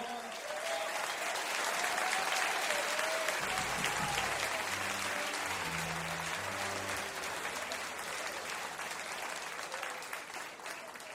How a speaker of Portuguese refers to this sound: Fuerte el aplauso para Leo, por favor.